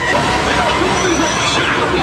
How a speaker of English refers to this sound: Right now I'm like in the in the heart of Fuzhou shopping district. This right here is called Dongjieko. And uh, I, I give y'all a quick look at the crowd of people.